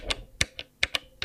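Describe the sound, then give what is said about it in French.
Six crisp button clicks on a Polyend hardware sampler, irregularly spaced, fairly quiet, each a short bright tap with no voices. “Euh, tu, sais pourquoi je veux un polyend de Knar C'est le son des boutons.”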